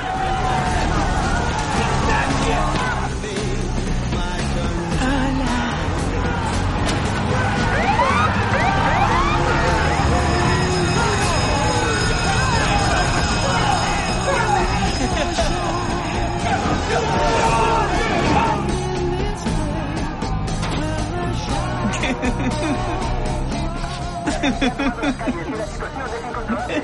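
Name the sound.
rioting crowd shouting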